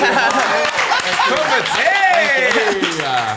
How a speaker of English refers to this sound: Oh wow! Okay, round of applause.